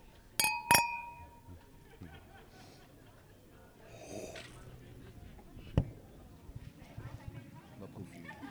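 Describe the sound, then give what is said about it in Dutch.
Two bright wine-glass clinks ring out close together near the start in a toast, clear and resonant, followed by quiet handling noises and faint murmuring voices. “Even een slokje mee te beginnen. Proost.”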